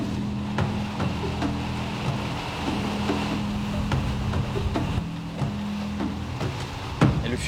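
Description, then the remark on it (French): A steady low motor drone with a broad, washing hiss of water and wind, like a boat cruising along, continuous, with a few faint knocks and no one speaking. “Je ne me sens pas en danger, surtout parce que je suis sur le bateau.”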